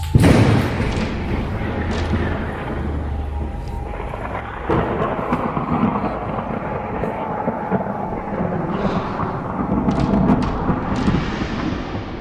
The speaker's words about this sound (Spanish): En ese preciso momento empezó a tronar y comenzó una lluvia muy copiosa.